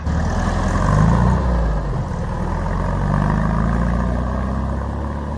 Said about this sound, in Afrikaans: terwyl ons nog so staan en praat op 'n plaaspad in die Hoogtepas kom een van daai einste ou tradisionele kewers aangekry.